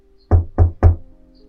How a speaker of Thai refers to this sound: ใครเคาะประตูทำไม ฉันจะนอน